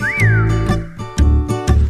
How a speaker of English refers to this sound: Someone's whistling. One's whistling.